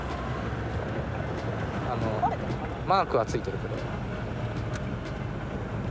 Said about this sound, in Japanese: なんか風ボボボボボとか言ってるかもしれない、窓全開じゃないと軽トラってちっちゃいから